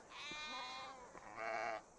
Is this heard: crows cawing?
no